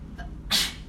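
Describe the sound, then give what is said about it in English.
A single sharp sneeze bursts out, a short breathy blast that fades quickly, heard over a low, steady room hum with no one talking. “Bless you.”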